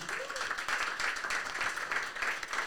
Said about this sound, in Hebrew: כאן אה, מעיר הקודש פרדס חנה, אנחנו פרדס חנה, נכון? פרדס חנה בבית תבורי, 137 שמארחים אותנו, תעשו גם להם כפיים.